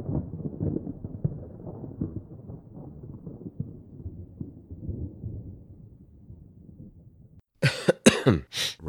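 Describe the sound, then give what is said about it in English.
A long, low, gravelly stretch of throat clearing and rumbling, followed by three sharp, loud coughs in quick succession, with no talking. “I got crap going on in my throat too”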